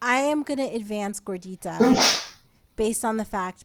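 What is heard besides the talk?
sneeze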